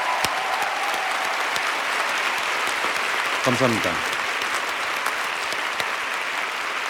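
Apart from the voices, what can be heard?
audience applause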